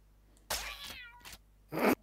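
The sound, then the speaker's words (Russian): A cat meows twice, first a long, wavering cry, then after a short pause a shorter, sharper meow. No one speaks. “А можно снять кота?”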